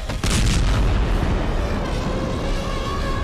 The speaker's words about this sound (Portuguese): Uma explosão reverberou, derrubando a maioria dos animais, atropelando um ao outro.